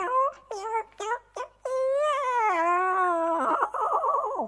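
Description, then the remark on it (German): A person imitates a cat's meow, as a cat in a story jumps onto a windowsill, turns back and meows: a few short, choppy mewing calls, then one long, drawn-out, high-pitched meow that wavers and ends in a trembling warble. “Und mit einem Satz ist sie aufs Fensterbrett, hat sich noch einmal kurz umgedreht und miaut.”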